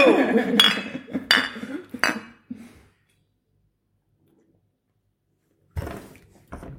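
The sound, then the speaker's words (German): Glasses clink together in a toast, three or four bright chinks with a brief ringing tone, followed by a quiet pause and then a couple of duller knocks. “Prost MSR 300.”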